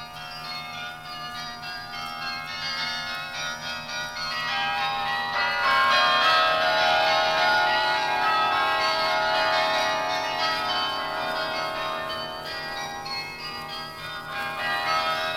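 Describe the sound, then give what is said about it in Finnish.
The 62 carillon bells in the tower of a First World War memorial on a university campus in Sydney, Australia, ring in the New Year in a dense, overlapping wash of bright pitched tones, many bells sounding together and swelling louder midway before sustaining, with no voices present. “Sydneyn, Australian pääkaupungin yliopiston alueella, sijaitsi ensimmäisen maailmansodan kaatuneiden muistomerkki, jonka tornissa on 62 kelloa.”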